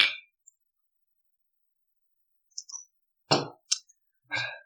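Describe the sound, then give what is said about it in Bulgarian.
Glasses clink together several times in quick, uneven succession, bright ringing taps with short pauses between them, in a traditional "na zdrave" (cheers) toast. No one speaks. “А, това сме седнали на поиски, а, традиционното на здраве.”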